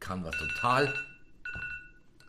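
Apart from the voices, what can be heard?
alarm clock ringing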